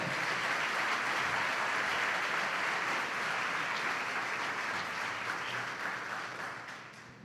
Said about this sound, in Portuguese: Vai aplaudir, vai com fé.